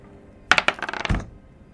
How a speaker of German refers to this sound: Aber würfel mir mal drauf.